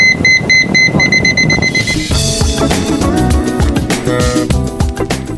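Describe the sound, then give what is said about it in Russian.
A water level dispenser for blind users, fitted onto a mug in a student dormitory room, beeps rapidly as boiling water reaches a set level: a quick run of short, high electronic pips for about two seconds, then a louder, busier mix of tones and noise takes over. “А это дозатор воды, когда наливается кипяток.”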